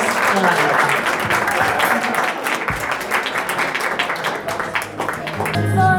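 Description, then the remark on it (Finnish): An audience applauds steadily after a music performance, a dense continuous patter of many hands clapping at an even loudness for the full six seconds, with voices faintly mixed into the crowd noise. “Siis mä oon ainakin ihan, joo, aplodit.”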